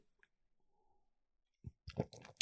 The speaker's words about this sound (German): So, ähm, ein Schluck Kaffee,